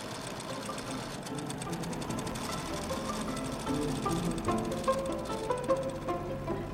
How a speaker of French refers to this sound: Au milieu du bruit uniforme d'une trentaine de machines à coudre, j'entends tout d'un coup un des appareils fonctionner avec plus de